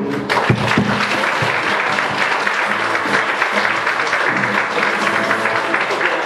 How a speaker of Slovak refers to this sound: Poďme zatleskať pánovi.